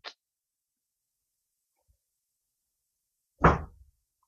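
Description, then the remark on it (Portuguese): A single solid thud of a door shutting, with a short low rumble trailing off, preceded by a faint click at the start and quiet surroundings otherwise. “Fecha essa porta aí, rapaz.”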